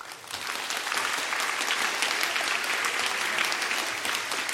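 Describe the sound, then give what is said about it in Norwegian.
An audience of school students claps for a panel of nine politicians after their closing appeals at a school election debate, a dense, even wash of many hands clapping at a constant, fairly loud level throughout, with no one speaking over it. “Takk for det, og gi hele panelet en stor applaus for flotte sluttappeller.”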